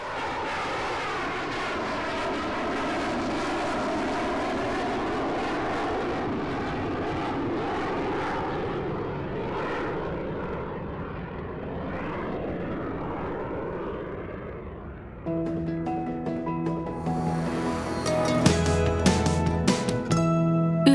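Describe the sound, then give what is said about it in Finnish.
Hornet fighter jets take off from a hidden shelter at Kajaani airfield, Finland, during Finnish Defence Forces exercises, with a loud, sustained engine roar that swells and shifts in pitch for about fifteen seconds. A short musical jingle then cuts in over the fading noise. “Sieltä hornetit tulevat salaisesta piilosta ja lähtevät taivaalle.”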